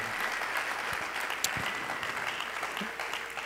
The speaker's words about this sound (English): I think you should clap your hands to be a part of such a wonderful church. Amen.